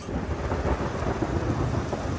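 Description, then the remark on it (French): A heavy thunder crash of a tropical storm over the ocean rumbles loudly and continuously, a deep storm roar with steady rain hissing underneath and no voices. “L'orage éclate.”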